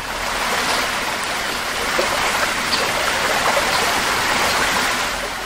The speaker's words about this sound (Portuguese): Cerrado tem som de rio, som de cachoeira. Afinal de contas, esse ambiente abriga três das maiores bacias hidrográficas do país, incluindo a do São Francisco.